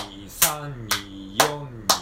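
A mini cajon is struck four times in an even, steady pulse, a square eighth-note beat, each hit a sharp, bright slap over a continuous low voice sounding underneath.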